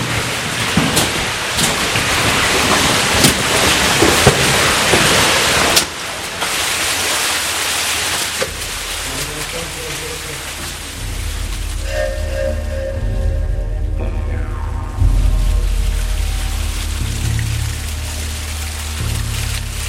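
Rushing water of a cave streamway, a feeder stream in the Burren, fills the space with a steady, dense hiss and roar, loud, shifting in tone midway as deeper rumbling swells beneath it; no one speaks.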